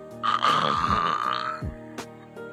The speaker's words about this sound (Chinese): 突然呢，那奇怪的声音又响了起来。原来呀。是一个小精灵睡着了，他在梦中偶尔打起响亮的呼噜